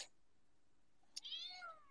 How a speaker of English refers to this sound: sorry, I got some cats around me here.